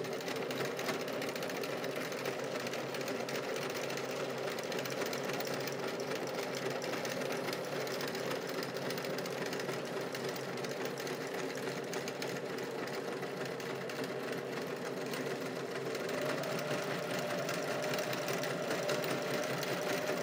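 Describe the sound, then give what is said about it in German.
A sewing machine runs steadily, stitching a pocket bag with a continuous mechanical hum and fine rapid needle rhythm, loud and even throughout with no talking. “Also den Taschenbeutel, den ich ja jetzt hier nähe, weil der so frei rumschwingt.”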